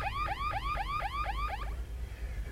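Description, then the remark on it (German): A car alarm wails in rapid repeating up-and-down sweeps, about six quick cycles, then cuts off, leaving a low engine-like rumble underneath. No one speaks. “Seien Sie doch so nett und sagen Sie Ihrem Gorilla, er soll die Alarmanlage abstellen.”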